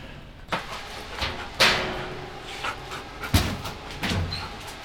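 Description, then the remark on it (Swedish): A sniffer dog in training pants and sniffs in quick, breathy bursts while searching jars for hidden cannabis, with several sharper snorts and huffs breaking through a steady airy panting. No one speaks. “Och när hunden som känner sniffar till, då kastar man en boll.”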